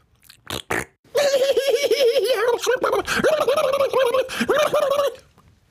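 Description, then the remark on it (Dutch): A person blows a long, loud raspberry with their lips, imitating a fart: a buzzing, wobbling tone that sputters on for about four seconds after a couple of short puffs. “Dames en heren, dat was geen echte scheet hoor. Dat deed ik met mijn mond.”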